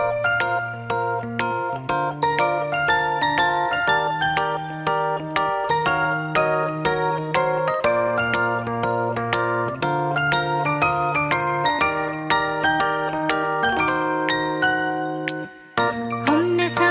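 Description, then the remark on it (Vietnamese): An instrumental intro of a Vietnamese pop duet plays loud, with a bright, chiming melody over a steady bass line and a brief pause near the end. No one speaks. “chúng ta sẽ ôn lại cùng nhau sau khi lắng nghe một ca khúc trước đã mọi người nhé”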